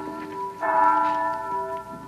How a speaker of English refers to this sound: That's the bell at St. Boniface, isn't it?